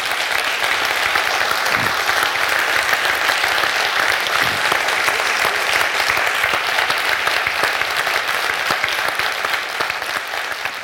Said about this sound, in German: Herzlichen Dank, Herr Kluge. Applaus